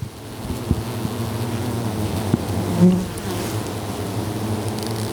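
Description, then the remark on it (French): A dense, steady hum of many bees buzzing as they crowd back into a hole at their hive entrance, a continuous drone with individual insects briefly flaring louder as they fly past the microphone placed there. “Tu vois il y a un trou où il y a plein de plein d'abeilles qui sont en train de rentrer.”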